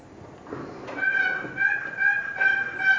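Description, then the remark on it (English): A wooden turkey box call is dragged back and forth in a quick series of raspy yelps, sharp squeaky notes repeating in an uneven rhythm, with no talking. “I didn't say you were supposed to sound better than me with it now.”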